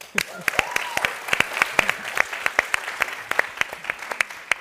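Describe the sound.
Audience applause: a steady patter of many sharp hand claps, fairly loud and continuous for several seconds, with a faint voice briefly audible underneath near the start.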